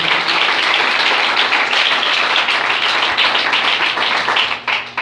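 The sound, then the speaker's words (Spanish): An audience at an evening church service applauds the Lord steadily, a dense wash of many hands clapping at once, loud and sustained throughout with no voices standing out, tapering slightly near the end. “Dale el aplauso al Señor en esta noche.”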